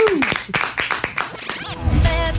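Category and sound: crowd, clapping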